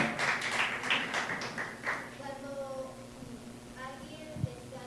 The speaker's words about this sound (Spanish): Un aplauso al muchacho porque es bíblico.